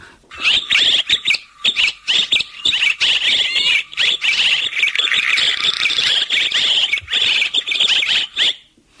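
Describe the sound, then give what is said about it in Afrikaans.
A greater striped swallow's call: a continuous run of bright, twittering chirps and warbles, steady for several seconds, heard alone with no voices. “dit is die groot streep swaal nie 'n windswaal nie hier is die roep van die nesbouer, die klein koppie vorm wat dan later volledig gebou word met die tonnel.”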